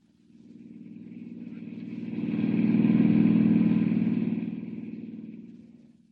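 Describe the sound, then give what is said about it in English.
A rented car's engine drones steadily as it drives along a dusty road toward San Miguel, 50 miles away, approaching, swelling to a loud pass, then receding, with a low rumbling hum and faint rattling throughout. “Hiring a car, Clark Kent heads out at once on the dusty road to San Miguel, 50 miles away.”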